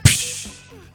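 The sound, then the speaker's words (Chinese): A sharp, loud slap-like smack made by a voice imitating a face slap, a single crisp burst with a brief ringing tail, followed by a faint second tap at the end. “哦哦，你在模仿那个扇耳光的声音吗？”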